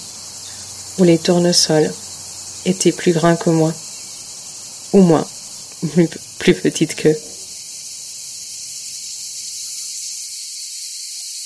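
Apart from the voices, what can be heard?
cicadas singing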